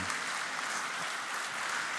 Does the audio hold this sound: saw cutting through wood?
no